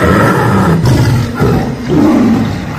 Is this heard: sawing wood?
no